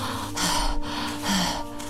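Heavy panting, two loud, breathy rushes of air in quick succession, each a harsh hiss, over a faint steady hum, with no talking.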